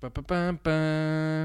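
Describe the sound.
Someone vocally imitates a game show theme tune, singing a few quick syllables before stretching into one long, loud held note.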